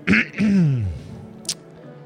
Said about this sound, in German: Er richtet sich langsam wieder auf, räuspert.